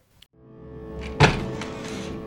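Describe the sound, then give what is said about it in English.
A heavy front entrance door bangs open with a single forceful, loud thud over a low steady background hum. “You hear the front entrance door fly open with great force you look up to see a giant of a humanoid squeeze through the doorway”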